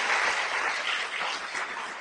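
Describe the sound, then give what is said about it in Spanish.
Steady, dense applause from a crowd welcoming platinum members as they stand up, a continuous wash of many hands clapping at once, sustained and fairly loud throughout with no speech on top. “Vamos a, a recibir con un fuerte aplauso que se pongan de pie.”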